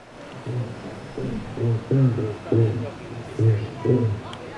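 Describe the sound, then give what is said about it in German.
Repeated low, resonant drumming pulses from a black drum fish, about eight croaking bursts in a loose rhythm, standing out clearly over a faint underwater hiss. “Um, one of my favorites is the black drum.”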